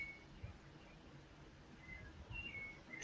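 A rufous-bellied thrush sings faintly, a few short clear whistled phrases spaced apart over a quiet low background rumble.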